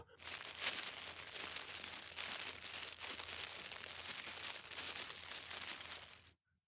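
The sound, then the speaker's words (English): Steady, continuous rustling and crinkling, like paper or plastic being handled, dense and textured for several seconds before stopping abruptly. Moderately loud, with no voices. “All he heard in response was some rustling in some distance.”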